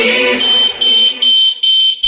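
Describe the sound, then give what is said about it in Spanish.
A loud, shrill electronic fire alarm beeps in a rapid repeating pattern, about five piercing tones in two seconds, with faint background noise at the start. “Uy, la alarma, ¿Eh? la alarma antiincendios.”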